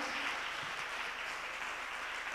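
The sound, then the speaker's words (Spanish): A church audience claps steadily together during a Bible lesson, applauding someone who recited a verse, a dense wash of overlapping hand claps that holds an even loudness throughout, with no voices rising above it. “Eh, un fuerte aplauso.”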